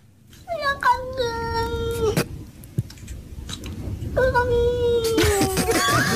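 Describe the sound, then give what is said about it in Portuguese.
A cat lets out two long, drawn-out meows separated by a short pause, each wavering and sliding downward in a strangely speech-like way, said to sound like Portuguese words, over a low background rumble. “é melhor explicar o que é que o gato diz antes”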